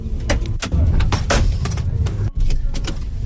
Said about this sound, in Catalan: Doncs escolta, està a punt de començar la cursa, què hem de fer? Doncs pujar al cotxe, eh, cordar-nos el cinturó i posar-nos en marxa.